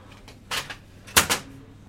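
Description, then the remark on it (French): Two pairs of sharp plastic clunks and rattles as a man roughly jerks and shoves a printer that will not work. The bursts are fairly loud, with brief quiet between them. “Il entame d'autres manœuvres un peu plus fortes”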